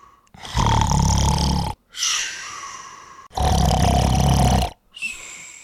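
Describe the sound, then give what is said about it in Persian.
Loud, rumbling snoring of a giant in a told story, shaking the palace: two long, harsh, throaty inhales, each followed by a softer, breathy exhale, in a slow, heavy rhythm with no talking. “خلاصه دیو خوابید خورخورش بلند شد و قصر رو لرزوند”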